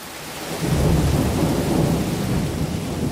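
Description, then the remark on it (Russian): A deep, rolling rumble of thunder swells in after a brief quiet moment and keeps growling steadily, with the hiss of rain beneath it and no voices. “Для этого нужно посчитать, сколько секунд прошло между вспышкой молнии и раскатом грома.”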